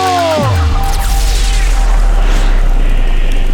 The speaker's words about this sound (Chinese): 黑山妖怪抓起了一坨乌云，用双手出力的挤压乌云，发射出有史以来最大一发闪电。他瞄准的正是玛丽婆婆。